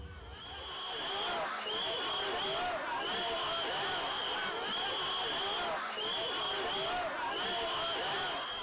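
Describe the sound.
Dense outdoor crowd ambience from a rally of secondary school students, a group calling itself the Bad Students, gathered in front of the Ministry of Education, with overlapping voices, shouts and chatter filling the air continuously, plus a recurring high electronic tone cutting in and out like amplified feedback.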